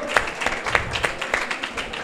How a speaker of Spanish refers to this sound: Otro, aplauso, ¿no? Otro aplauso, venga, va.